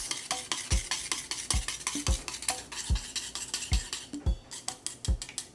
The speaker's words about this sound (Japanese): 卵は事前に割ってから混ぜ合わせます